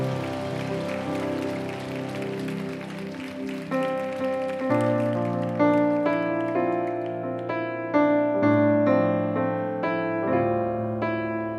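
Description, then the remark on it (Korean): A church audience claps in a dense, crackling burst of applause given in thanks and glory to God for the first few seconds over sustained keyboard chords, then the applause gives way to steady, ringing keyboard music. “영들을 사로잡으시는 그 하나님의 신실하심과 선하심에 감사와 영광의 박수 올려드립시다.”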